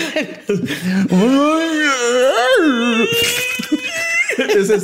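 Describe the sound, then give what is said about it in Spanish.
A human voice imitates an imbunche, a folklore creature, with lowing, animal cries and rough guttural sounds: long, wavering moans and cries that swoop up and down in pitch, loud, with a few breathy bursts between them. “De hecho, emitiendo mugidos, gritos de animales o sonidos guturales y ásperos.”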